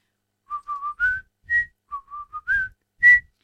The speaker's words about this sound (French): Oui, vous avez tous reconnu cet air mondialement connu. Et euh, je vous ai vu que rien qu'en sifflotant, vous aviez envie de bouger, vous lever, euh, faire tourner les serviettes, euh, prendre la glacière, aller sur la plage.